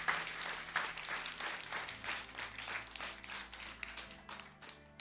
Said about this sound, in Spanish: Así que nosotros vamos a honrar a lo que Dios hizo con otro aplauso en este asunto.